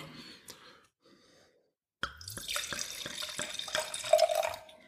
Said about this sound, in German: Das heißt, ihr braucht jetzt, wie gesagt, zwei Weißweingläser. Und äh, in dem, das linke Glas schenke ich zunächst mal den Riesling ein.